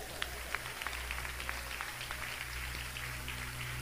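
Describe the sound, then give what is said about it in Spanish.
A church audience claps for God for the word of scripture, in a loose, uneven patter of individual hand claps, moderately soft, over a steady low hum, with no voices. “Le dan palmas a Dios por la palabra.”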